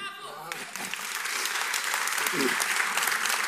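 An audience applauds the actress Paula Erra after she recited a text at the Jornadas do Teatro organized by Baltasar Dias, the clapping swelling quickly into a dense, steady patter of many hands that stays loud and even throughout.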